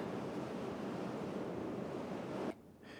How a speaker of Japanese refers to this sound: ちょっと聞こえますかね雨